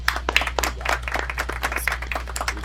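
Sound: round of applause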